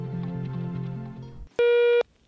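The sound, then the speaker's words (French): A loud, steady electronic voicemail beep for leaving a message to Sud-Ouest sounds once for about half a second, following a brief stretch of soft tonal music that fades just before it. “La parole est à vous, après le bip sonore.”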